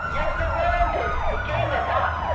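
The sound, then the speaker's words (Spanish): A police siren wails in rapid rising-and-falling sweeps, loud and steady throughout, with a low rumble of traffic underneath. “Ahí viene la policía.”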